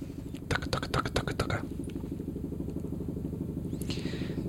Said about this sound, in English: Oh, we got another helicopter. That's two podcasts in a row. We've got buzzed.